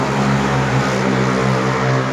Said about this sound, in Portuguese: Passar a moto, passa a moto com esse barulhão.